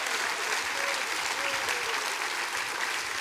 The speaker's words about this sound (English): Somebody clap your hands and say, That's right. Come on. That's right.